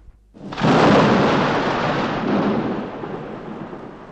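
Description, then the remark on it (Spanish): A sudden, loud rumbling crash bursts in after a brief quiet moment as the hill of Hamelin opens like massive stone doors grinding apart, then rolls on as a heavy, slowly fading roar with no voices. “Y al llegar allí, la colina se abrió con enorme estrépito, como dos grandes puertas de piedra.”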